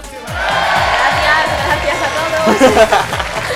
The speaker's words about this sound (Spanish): Bueno, un aplauso, ¿no?